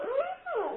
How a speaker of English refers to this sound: oh, and that was my dog, yeah, yawning. that was a dog yawning. How interesting. That was Otis. They make noises.